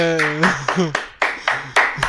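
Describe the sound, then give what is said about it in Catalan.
Hands clapping in a quick, steady rhythm, each clap a sharp bright smack, with a voice briefly calling out over the first few claps. “Mira, tothom aplaudeix.”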